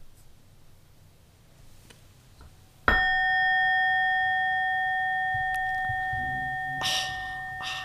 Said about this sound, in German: Gong nochmal bitte.